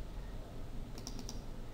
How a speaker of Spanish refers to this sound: Imaginaos para esta imagen, que es la capa 2, si a una capa le queréis cambiar el, nombre, sobre donde pone capa 2 hacéis clic, clic